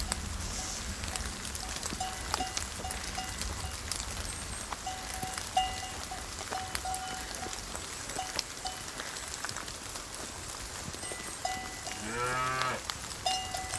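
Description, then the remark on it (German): Cows on a rainy pasture in fog-covered mountains, with one loud, drawn-out moo near the end over steady heavy rainfall and the faint, intermittent clank of cowbells; no one speaks. “Hier gibt es Weiden mit Kühen.”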